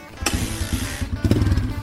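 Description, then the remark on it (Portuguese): A blue and yellow XT600 Ténéré motorcycle engine fires up abruptly after a brief moment and settles into a loud, rough, throbbing idle with rapid low pulses, with no voices. “Ao ligar a moto”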